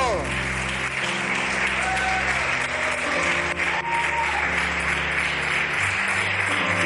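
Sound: audience applauding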